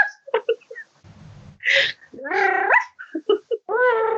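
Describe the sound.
A person's voice imitates a dog, letting out a series of barks, yips and whiny rising howls in uneven bursts, with a breathy gap partway through.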